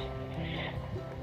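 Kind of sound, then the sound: nature, rain falling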